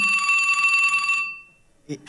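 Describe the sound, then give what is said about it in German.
A telephone rings with a bright, steady metallic trill for just over a second, then fades out; a brief voice cuts in right at the end. “Der, Telefon, ist das für, für, für mich oder was?”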